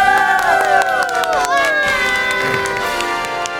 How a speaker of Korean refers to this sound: 와 심지어 우리 목소리가 방금 전에 빵빠레 소리를 이겼어요.